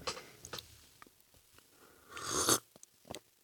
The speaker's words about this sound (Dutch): Het is gewoon even een klein slokje nemen. Met wat zuurstof erbij. Slurpen.